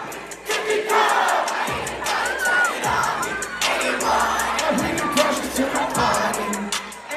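A huge crowd of young voices shouts and chants along to music, loud and continuous for the whole stretch, with a steady beat faintly punching through the roar.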